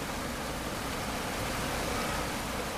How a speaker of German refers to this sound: Es ist bereits früher Nachmittag und es herrscht viel Verkehr.